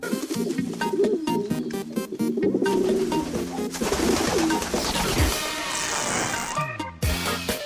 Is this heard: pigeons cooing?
yes